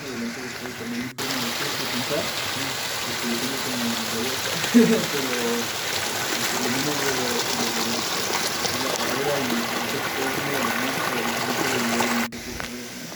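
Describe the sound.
Water pours and rushes steadily, as if being collected from a flowing source, as people fill up with water to drink and rehydrate, with muffled voices murmuring underneath throughout.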